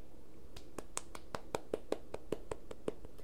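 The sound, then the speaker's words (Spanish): A single person claps hands alone in a steady, fairly quick rhythm, roughly fifteen crisp claps at an even pace against a faint background hum. “Qué chimba aplaudito solo, manito de verdad que sí me voy a tener que traer una gente que unos esclavos para que me aplauden”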